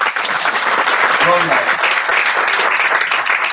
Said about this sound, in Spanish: Bueno, entonces, ¿por qué no le dan un aplauso al Señor?